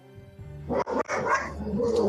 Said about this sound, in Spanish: Y antes de eh, que esos perros se pongan más bravos. Están bravos, denles de comer.